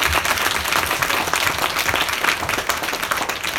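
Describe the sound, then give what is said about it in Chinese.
A crowd applauds outstanding newcomers steadily, a dense, even patter of many hands clapping for a few seconds without pause, with no voices standing out over it. “有没有优秀的新人为了热烈掌声？”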